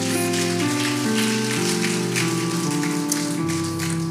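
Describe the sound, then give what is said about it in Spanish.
Steady, dense applause from a crowd, given to the Lord, fills the whole clip, a continuous crackling wash, while sustained keyboard chords shift underneath. No one speaks. “Alguien denle un aplauso al Señor, tome asiento.”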